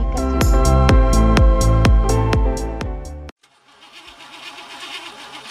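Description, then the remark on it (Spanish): A car engine cranks repeatedly in a rapid, loud chugging rhythm without catching, then cuts off abruptly, leaving a quieter stretch of faint background noise. “Tu auto está fallando.”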